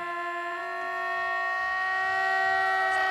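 A "fat alarm" siren blares as one steady, buzzing tone, rich in overtones and holding its pitch without rising or falling. It sounds on its own for about three seconds, growing slightly louder.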